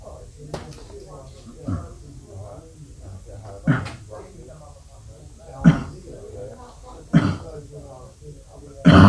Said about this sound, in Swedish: Ja, underbar attackhosta där på slutet.